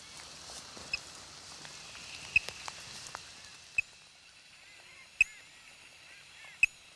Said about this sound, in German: Ich schwenke die große Antenne über meinem Kopf, während wir durch das hohe Gras stapfen. Und der Signalton wird tatsächlich lauter. Da muss ein Schlafbaum der Plumploris sein.